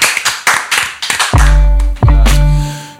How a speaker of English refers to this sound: I'm going to clap.